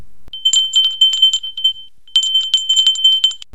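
A small bell rings brightly in two rapid, jangling bursts, each a quick flurry of high, silvery strikes with a short pause between them, clear with no voices.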